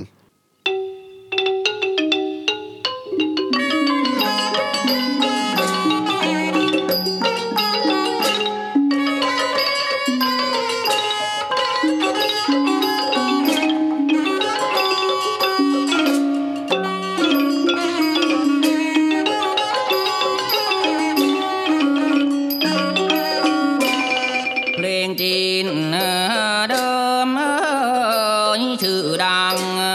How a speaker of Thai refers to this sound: คราวนี้จะเป็นสำเนียงจีนครับชื่อว่าเพลงโป้ยกังเหลงมีเนื้อร้องส่วนภาษาไทย